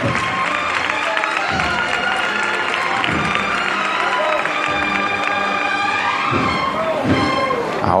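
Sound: crowd applause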